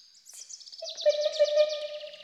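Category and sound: bird, birds singing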